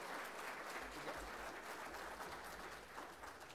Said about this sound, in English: Let's give them a round of applause, guys.